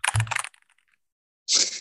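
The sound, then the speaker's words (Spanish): Crisp computer keyboard clatter in two short bursts as a person types a couple of things: a quick run of overlapping key taps, a pause of about a second, then another sharp flurry of clicks. “Abro ahí mi, Bajo la pantalla, estoy tranquilito, tecleo un par de cositas”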